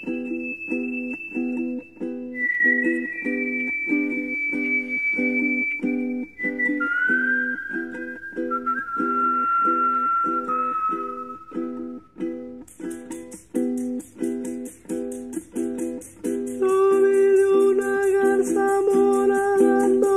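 A recorded tonada folk song plays with a steady, rhythmic strummed accompaniment under a whistled, flute-like melody; partway through a bright shaker joins and the music grows fuller. No one speaks.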